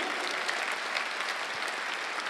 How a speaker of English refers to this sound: Yeah, you can clap. That's good.